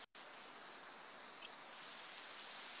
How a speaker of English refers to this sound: Is the water um, okay for the sound, or is it too loud? I think it's okay.